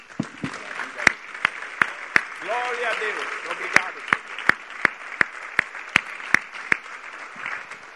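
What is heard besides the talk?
audience applauding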